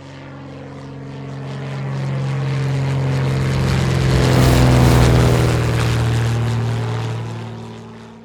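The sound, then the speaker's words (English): A propeller airplane drones past with a low, humming engine roar that swells to its loudest midway, then gradually eases off. No voices are heard. “Let's get on the plane. It's going to be a quick ride.”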